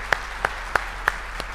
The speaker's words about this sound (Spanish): Denle un fuerte aplauso a nuestro Dios.